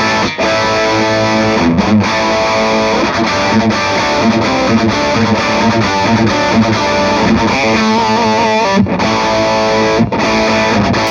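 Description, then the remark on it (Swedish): A heavily distorted electric guitar through a high-gain amp plays loud, dense riffs and chords, with a fuzzy, saturated tone and a few brief pauses between phrases. The distortion comes from a pedal with its boost mode not yet switched on. “Ni hör att den har ganska mycket gain och då har vi ändå, mm.”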